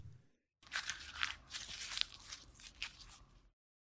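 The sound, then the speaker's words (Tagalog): A sheet of paper, a love letter, is unfolded and handled for about three seconds, giving crisp crackles and rustling bursts with no one speaking. “O ano? Anong meron dyan sa papel?”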